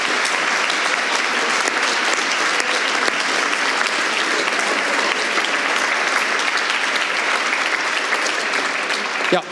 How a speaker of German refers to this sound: Ein Applaus für alle zusammen. Herzlichen Dank, habt ihr mitgemacht.